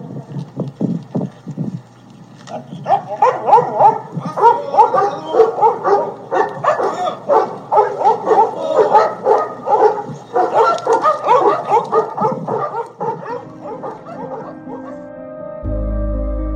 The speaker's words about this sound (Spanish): Como muestra de respeto y reconocimiento, los compañeros canes de Proteo lo despiden ladrando.